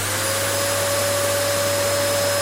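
A vacuum cleaner runs steadily and loudly, its motor holding a constant whine over a broad rushing roar, with no change in pitch and no voices.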